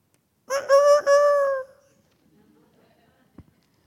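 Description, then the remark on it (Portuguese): A rooster crows once, loud: a harsh, multi-part call held for about a second, then fading into quiet with a faint knock afterward. “o galo cantou.”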